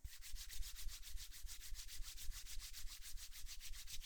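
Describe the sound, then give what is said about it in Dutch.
Hands rub briskly and hard against each other, as if making a fire, in a steady back-and-forth rhythm, a dry, continuous friction sound for about four seconds with no talking. “Wrijf je handen even heel hard tegen elkaar aan, alsof je een vuurtje maakt.”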